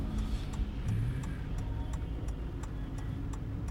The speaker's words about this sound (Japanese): あ車来ちゃったから曲がれないかもしれないなこれ曲がれないですね直進しちゃいますいつもあの苦戦するところが今日は車がいっぱいでもう曲がることもできません